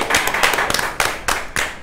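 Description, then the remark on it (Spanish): A short burst of applause welcoming a guest, many hands clapping in a dense, steady patter with sharper claps standing out every so often, fairly loud and with no one talking over it. “Entonces vamos a darle la bienvenida con aplausos”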